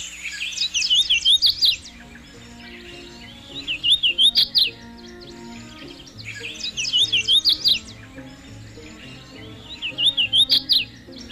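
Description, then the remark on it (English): A hooded warbler (Setophaga citrina) sings a bright, whistled song, repeated four times at steady intervals, each phrase ending in an emphatic flourish, clear over faint background hum. “It's today's Talking Birds featured feathered friend, Setophaga citrina, the hooded warbler.”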